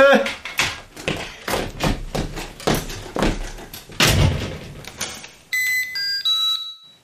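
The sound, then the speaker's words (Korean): A front door as someone leaves: a run of sharp knocks, clicks and thuds, then a brief, bright electronic chime of a few high tones as the door closes. No talking. “기분 좋은 얼굴로 손을 들어 보이고 현관을 나섰다.”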